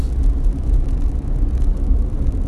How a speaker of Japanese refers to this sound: 今その、えー、車中で撮っております